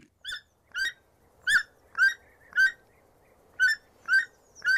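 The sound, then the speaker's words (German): A toucan calling: eight short, raspy, nasal yelps in an uneven rhythm, fairly loud against a faint background hum, with no voices. “Es ist ein Tukan.”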